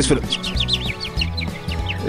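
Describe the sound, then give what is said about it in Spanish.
Birds chirp and warble rapidly throughout in spring, a busy cluster of high, twittering calls repeating in quick bursts over a low, steady droning tone underneath. “¿Qué pasa con estas aves?”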